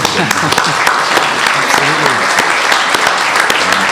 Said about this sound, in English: And I think we'll give another round of applause.